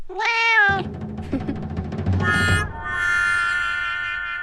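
A cat gives a short meow, then a longer, drawn-out wavering meow a couple of seconds later, both fairly loud over a rumbling, busy background.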